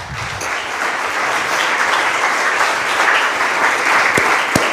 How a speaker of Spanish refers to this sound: Denle un aplauso, Señor, por favor, ¿sí?